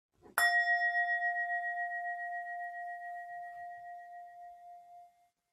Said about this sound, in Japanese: まだ少し余韻が。はい。こういう、えー、シンギングボールをね、あの、いただいたんですね。で、それの、この、シンギングボールの倍音あの、今練習、絶賛練習中なんですけれども